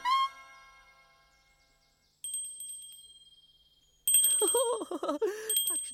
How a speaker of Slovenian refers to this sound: Ding dong, ding dong, kako zvoni zvonček. Ding, ding dong, kako zvončklja zvonček. Ting plink, ting plink, kako zvončklja zvonček. Tink, tink, plink.